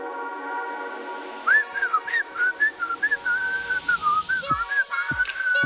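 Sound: whistling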